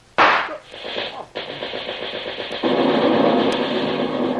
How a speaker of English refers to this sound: The magazine blew up. Seems to be Thorson's favorite trick.